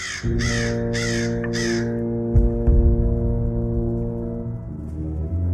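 Three harsh, raspy raven caws in quick succession over a steady low droning tone, which carries on alone afterward with a few soft low thumps.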